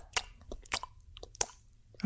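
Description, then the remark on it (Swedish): Wet smacking chewing with crisp crunchy bites of someone eating an apple, a quick irregular run of mouth sounds heard alone at moderate volume. “Ljudet när andra äter äpplen.”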